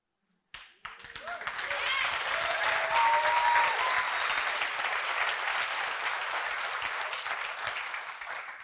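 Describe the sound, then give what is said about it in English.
A crowd breaks into sustained applause, a dense wash of clapping that swells quickly after a brief silence and holds steady for several seconds, with faint voices and cheers mixed in. “Don't clap too loud because now you got to become the best.”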